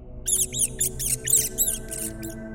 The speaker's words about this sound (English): The rat's squeals echoed through the nave, reverberated in the aisles, and were cut short with the soft crunch of delicate bones.